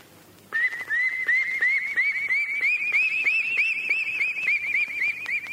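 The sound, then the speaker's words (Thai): Someone whistles an imitation of duckling calls: a rapid, steady run of short, high-pitched rising peeps, fairly loud and continuing for several seconds with no talking. “ไหนลองเฮ็ดเสียงเป็ดให้น้องฟังได้บ่ โถทูลหัว ทำไมจะไม่ได้ล่ะ น้องอยากจะฟังเสียงเป็ดขนาดไหนจ๊ะ เอาลูกเป็ดก่อน ค่อยฟังนะ”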